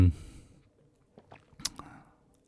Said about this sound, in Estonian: kui sa annad mulle korraks selle raamatu. ja, ja muidugi, muide, kui, kui äh, kõlavad äh, kuulajate jaoks need paberiraginad, äh, siis ma nagu vahepeal sirvin seda raamatut.